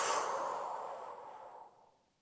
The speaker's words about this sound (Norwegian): Pust godt inn med nesa, og hold pusten. pust ut.